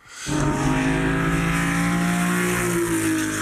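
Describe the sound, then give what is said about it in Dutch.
A classic Ferrari 250 SWB (short wheelbase) sports car engine idles with a rich, throaty rumble and then climbs steadily in pitch as it revs, holding a loud, sustained growl with layered harmonic tones. No one speaks. “Ja, lekker dat, eh, dat is voor mij wel eh, de allermooiste Ferrari uh, alle tijden.”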